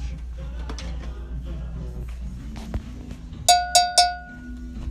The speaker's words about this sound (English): Oh, and for you didn't know, this is what cowbell sounds like when you hit it with a drumstick.